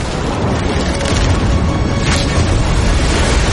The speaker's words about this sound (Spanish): La tromba de agua cae ladera abajo en su dirección.